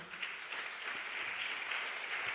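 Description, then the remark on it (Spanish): An audience applauding loudly, a dense, steady wash of many hands clapping at once that holds at an even level from start to finish, with no voices standing out. “Un aplauso fuerte.”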